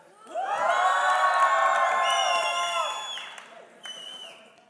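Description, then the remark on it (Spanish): A group of children shout a loud, drawn-out greeting in unison, voices blending into one sustained yell for about three seconds before a brief trailing call. “¿Por qué me gritan?”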